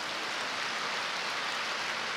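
A steady burst of applause, many hands clapping in a dense, even crackle that holds at moderate loudness for about two seconds with no voices over it.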